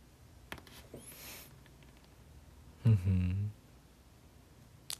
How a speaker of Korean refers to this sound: 꼬르륵 들었, 들었구나. 배고프다.